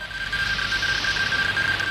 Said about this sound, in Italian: Cos'è? State a sentire. Alfabeto Morse.